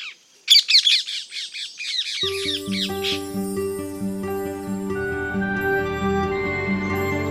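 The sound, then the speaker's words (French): A rapid burst of harsh, shrill ring-necked parakeet squawks rings out loud for a couple of seconds before steady instrumental music rises and carries on alone. “La perruche à collier n'est pas l'espèce exotique envahissante la plus problématique.”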